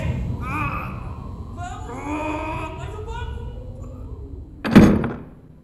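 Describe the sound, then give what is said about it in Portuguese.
Strained voices and grunts build for a few seconds as two men push a heavy shed door shut against a violent wind, then it closes with a single loud wooden thud that rings briefly before fading. “Padre Augusto fecha a porta com a ajuda de Gregório.”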